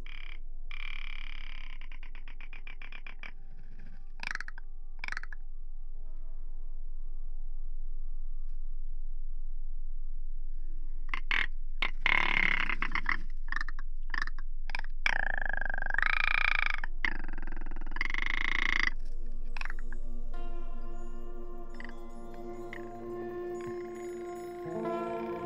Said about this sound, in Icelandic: Hér heyrir við upptöku hans af rjúpum.